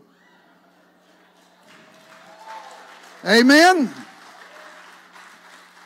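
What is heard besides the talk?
audience clapping and shouting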